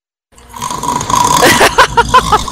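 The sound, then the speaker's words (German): A rough, rasping snore-like sound swells up out of silence, then breaks into a quick series of gurgling, pulsing snorts, loud, with no one talking. “Ah, es hörte sich nach Schnarchen an.”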